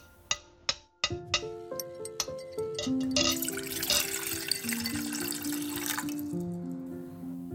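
A few light clinks, then a grandmother pours plain water steadily into a glass at the dining table, the gurgling pitch rising as it fills over several seconds. No one speaks.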